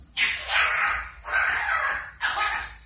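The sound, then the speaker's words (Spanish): Three loud, harsh, raspy squawks from Lora, a pet parrot, come in quick succession, each lasting under a second with short gaps between, and no one talking. “con este caso de la lorita Lora, que le cuenta a su dueña ¿Cómo fue el accidente de su hermano Loro?”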